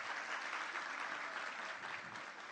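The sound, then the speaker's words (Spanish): A crowd applauds steadily for a young volunteer who has come up for a demonstration, many hands clapping in a dense, continuous patter that holds at an even level before easing slightly at the end. “Un aplauso para él.”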